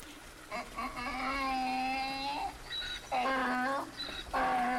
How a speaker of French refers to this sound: Seulement voilà, entre le bœuf et l'âne gris, c'est bien l'âne qui fait le plus de bruit.